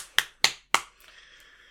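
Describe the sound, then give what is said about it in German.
Three sharp, evenly spaced slaps of a hand clapping against the crook of the arm as applause for other sports teams, each a bright crisp smack, followed by a faint ringing tail and quiet. “Ja, das war ein, äh, ein Applaus auf die, die Ellebeuge. Armbeuge.”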